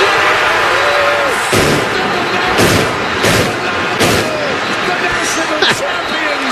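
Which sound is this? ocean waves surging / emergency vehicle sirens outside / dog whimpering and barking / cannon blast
cannon blast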